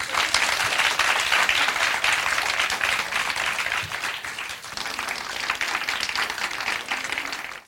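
Sustained applause from a live audience, a dense wash of many hands clapping at once, loud and steady for several seconds before easing slightly near the end.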